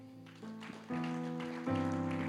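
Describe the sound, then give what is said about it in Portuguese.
A church audience applauds the Lord in a steady, dense patter of clapping, mixed with sustained keyboard chords that shift and swell louder partway through. “Aplauda ao Senhor, igreja.”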